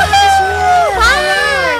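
Close, loud voices imitate a cheering crowd, with drawn-out celebratory shouts that rise and dip in pitch and fill about two seconds without a break.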